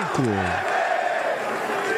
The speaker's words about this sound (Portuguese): A torcida está pedindo Thiago Neves.